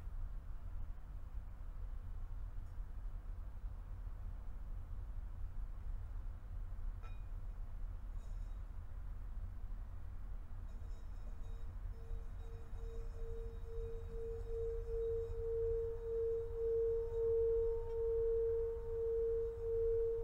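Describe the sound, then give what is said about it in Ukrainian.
A gong struck to bring a meditation to an end: its sustained, humming tone swells in after a steady low rumble and grows louder and brighter, ringing as a single drawn-out pitch to the end with no one speaking. “Зараз я вдарив гонг, щоб вивести нас з медитації.”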